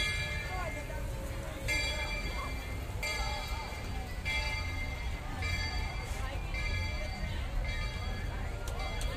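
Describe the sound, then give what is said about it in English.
A train rumbles past in Florida while its bell clangs steadily, about once every second or so, loud over a low, continuous mechanical drone, with faint crowd chatter underneath. “Oh, there's the train!”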